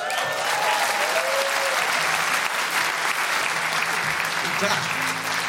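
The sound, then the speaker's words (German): Steady, dense applause from an audience welcoming a performer, loud and continuous, with faint vocal tones and scattered cheers poking through the clapping. “Vielen Dank für den rauschenden Empfang hier.”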